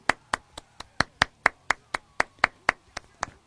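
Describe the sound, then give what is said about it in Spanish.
A single person claps steadily, alone, to welcome an interview guest on a broadcast via Zoom, about fourteen sharp hand claps in an even rhythm with no voices alongside. “No importa, aplaudo yo.”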